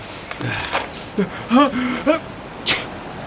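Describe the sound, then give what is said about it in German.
A sneeze in a Die drei ??? audio drama scene on a beach: a few short, rising voiced catches of breath build up, then end in one brief, sharp hissing burst. No one speaks. “Gesundheit.”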